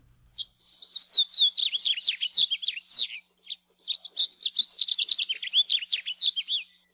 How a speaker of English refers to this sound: we've got a song you're sure to recognize. It's from one of the most common songbirds in the islands, the house finch.